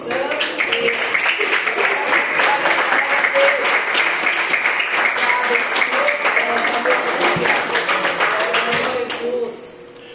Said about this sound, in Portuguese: E as palmas do meu Senhor.